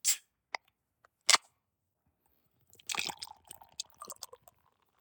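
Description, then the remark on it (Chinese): A lager beer being opened: a few sharp clicks and a crisp pop, then a stretch of fizzy, crackling hiss with small irregular ticks that fades out. No one speaks. “我现在开一个昨天晚上团购的， 啥味儿的酒啊？”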